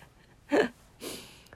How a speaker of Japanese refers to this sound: やばいすいませんあくびが止まらない